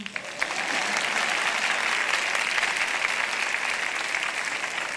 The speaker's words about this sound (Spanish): Pueden aplaudir mientras yo...